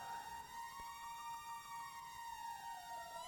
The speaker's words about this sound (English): It's almost like a siren. Uh huh. Yeah, the beep, beep, beep, beep, beep, that those mini those mini glides in the background are fracture. That's what fracture is doing.